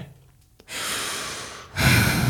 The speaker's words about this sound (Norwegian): Bare pust. Prøv å vi pust med magen. Ok?